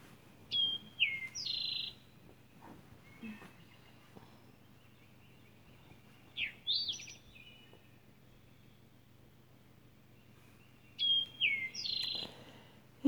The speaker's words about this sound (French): Je remets le nez dans le ciel. Je me remets à discuter avec les oiseaux.